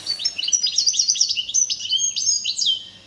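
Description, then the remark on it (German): A goldfinch song plays from a recording: a quick, continuous run of bright twittering chirps and trills, fairly loud, with no voices over it for the full few seconds. “Stieglitz, Stieglitz.”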